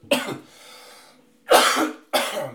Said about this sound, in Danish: Og det er stadig en grim host.